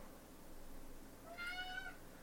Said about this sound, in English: Do you hear this shit? Kitty, what's up? What do you have to say today?